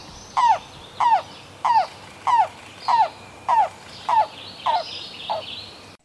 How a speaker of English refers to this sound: I realize I forgot to talk about the vocalizations of the yellow-billed cuckoo.